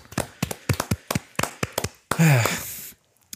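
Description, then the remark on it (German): A short round of hand clapping: about a dozen quick, sharp claps from a single person applauding the winner of a quiz, slightly uneven in rhythm, followed by a brief voiced exclamation that falls in pitch. “Darf ich einmal hier Applaus spenden.”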